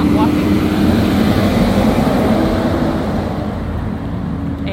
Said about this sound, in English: that was a trash truck.